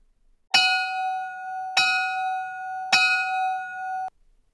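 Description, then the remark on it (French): A bell rings three times at an even, steady pace, each clear metallic strike ringing on into the next before the sound cuts off abruptly. Fairly loud, with no voices. “Donc, insérons le, jingle du haut son de la cloche pour entrecouper le, début de cet épisode final de la saison 3.”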